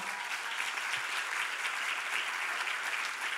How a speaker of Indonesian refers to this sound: Haleluya berikan tepuk tangan bagi Tuhan.